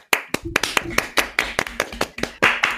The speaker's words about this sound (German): Wir haben eine Antwort von Gösselsdorf und unsere Anfrage wurde positiv beantwortet. Das ist kurzer, kurzer Applaus nach Gösselsdorf